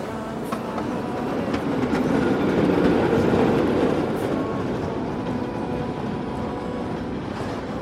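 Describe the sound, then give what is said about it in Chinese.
A train rumbles steadily along the tracks, moving off unhurriedly into the distance, a dense low roar with faint rhythmic clacking of wheels, swelling slightly midway then holding even to the end. No voices. “火车悠悠然地向远方开去”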